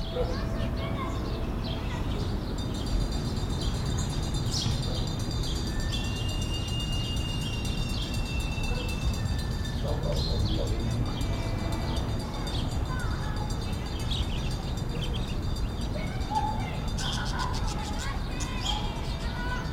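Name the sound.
birds chirping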